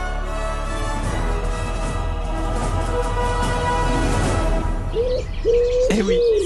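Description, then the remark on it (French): A dense chorus of forest birds and insects fills the background, then near the end a black-naped pheasant-pigeon gives a few clear, low, mellow whistled calls that rise and fall, loud. “Et alors que leur mission semblait battre un petit peu de l'aile, deux jours oh, avant le départ des scientifiques, le faisant pigeon à nuque bronzée a de nouveau pointé le bout de son bec.”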